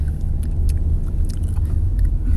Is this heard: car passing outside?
yes